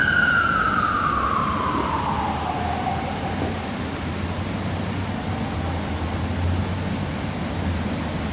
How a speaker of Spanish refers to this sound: hoy en la ciudad y como pueden oír, están pasando ambulancias y entonces díganos si nos escuchan. Pero nada malo está pasando.